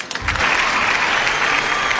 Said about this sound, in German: Warte, wir spielen an dieser Stelle Applaus ein.